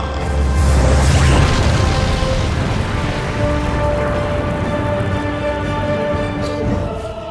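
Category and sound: sound effect, explosion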